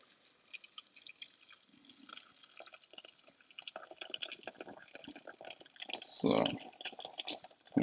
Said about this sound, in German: schön das Gemüse abgelöscht damit mit dem Wasser. Gemüsebrühe rein. Mal grob durchrühren schon mal.